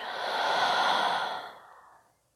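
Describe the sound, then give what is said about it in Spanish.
A single long, deep breath pushed out through the mouth, releasing all the air during a guided breathing exercise, breathy and airy, swelling then gradually fading away over about two seconds, fairly soft, with no talking. “Y de nuevo por tu boca suelta todo, todo el aire.”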